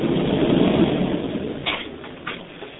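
A car drives up at the Mikhmash checkpoint on a hot day, its engine rumbling low and steady, loudest at first and then easing off as it settles, with a couple of brief higher clicks toward the end. No one speaks.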